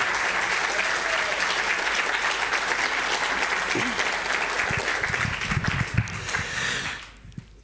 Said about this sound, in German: Herzlichen Dank nochmal an die Kinder und Mitarbeiter, dass ihr das gemacht habt. Genau. Applaus